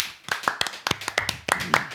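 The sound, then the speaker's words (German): Applause from what sounds like a small group: about a dozen sharp, crisp hand claps at an uneven rhythm, moderately loud, with no talking over them. “das ist dein Applaus.”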